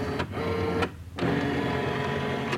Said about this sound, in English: taking a book and putting it on a scanner, and then the sound of the scanner scanning the book, and you just hear that.